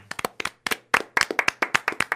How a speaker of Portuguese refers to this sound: Ó, palmas aqui.